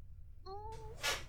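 A female cat that is being held and doesn't want to be lets out a short, low, drawn-out grumble, followed by a quick breathy huff, with no one speaking.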